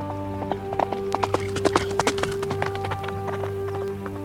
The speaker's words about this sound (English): A drunken man, Smith, is riding Beauty. Come on, horse, run!